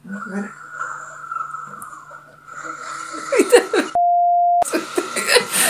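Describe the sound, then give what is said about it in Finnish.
Muffled noise of a neighbour's bathroom renovation heard through the wall: a steady whining hum, then harsh scraping, grinding bursts, a sharp electronic beep, and more clattering work noise, fairly loud and continuous. “Onko, siis oikeesti toi kuulostaa ihan niin kuin se tekisi jotain kylpyhuoneen remonttia tyyliin.”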